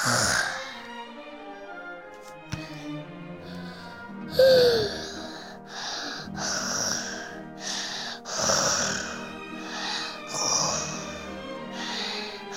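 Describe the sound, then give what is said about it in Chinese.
Several rounds of snoring from a sleeping family of dormice repeat in a loose rhythm: raspy, breathy snores with wheezing, sighing exhales, moderately loud and overlapping as if more than one sleeper is snoring. “呼噜噜一家都睡得呼呼的啦”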